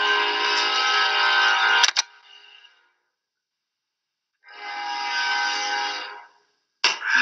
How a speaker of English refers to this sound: There's train coming.